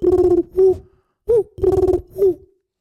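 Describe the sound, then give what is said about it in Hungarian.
A person mimics a pigeon with low, throaty hoo-hoo coos in two short rhythmic bursts, each a sustained pulsing call followed by a rising coo, loud. “Igen, nekem az, hogy én tudok ilyen galamb hangot kérni”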